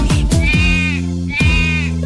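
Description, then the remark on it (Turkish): A voice imitates a lamb with two drawn-out, wavering bleats, loud, over a steady musical backing, as part of a Turkish children's song about the lambs on a farm. “Ali Baba'nın bir çiftliği var. Çiftliğinde kuzuları var”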